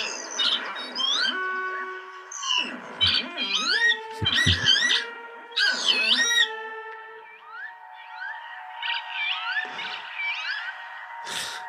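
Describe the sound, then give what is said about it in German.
Repeated wheezy, rising and falling 'kiwit' calls of a northern lapwing, several sharp bursts over the first half, then a softer stretch with faint chattering calls. No one talks. “Der äh, Kiebitz natürlich, der Vogel des Jahres. Ne? Ach, ist er der Vogel des Jahres? Ja, das heißt also für, für nächstes Jahr, 2024. Ah. Der ruft Kiwit.”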